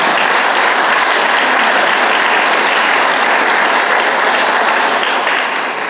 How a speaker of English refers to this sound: This is this is my memo. I give her a round of applause.